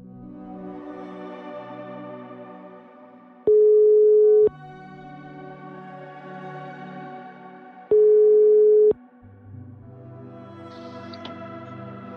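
Two steady, one-second ringback beeps sound several seconds apart while an outgoing phone call from Stein Morten Lier to police inspector Odd Skei Kostvedt of the Sør-Øst police district waits to connect, with layered background music playing underneath and no voices.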